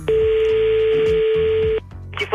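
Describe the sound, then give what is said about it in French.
A steady telephone tone, from a call to a dog grooming salon, holds for nearly two seconds over a rhythmic musical bed, then cuts off abruptly into near silence with a brief noise at the end. “Et on passe à coup de fil avec. Ce soir, c'est Caris qui appelle le salon de toilettage.”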